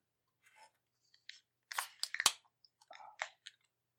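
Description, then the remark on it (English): Beverage cans being cracked open: a cluster of sharp metallic pops and crunchy, fizzing hisses in the middle, with softer clicks and rustles before and after. No one speaks. “All right, so uh, let's crack them.”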